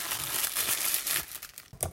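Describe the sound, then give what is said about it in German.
Paper rustles and crinkles continuously for a couple of seconds, fairly soft, with a sharper crackle near the end and no voices, a background noise in a lecture hall. “Rascheln.”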